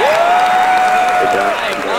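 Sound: applause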